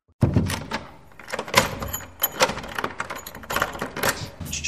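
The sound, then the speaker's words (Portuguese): A series of clunks, rattles and creaks like a heavy door being unlatched and swung open, with several sharp knocks and jangles spread over a few seconds, fairly loud, no talking. “então, primeiramente, abram as portas.”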